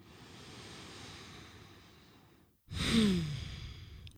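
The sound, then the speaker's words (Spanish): A slow, deep inhale through the nose is followed after a brief pause by a louder, breathy exhale with a faint voiced sigh, with no talking. “Tomemos una respiración profunda y conectemos con el cuerpo.”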